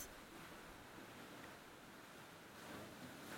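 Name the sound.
ocean waves surging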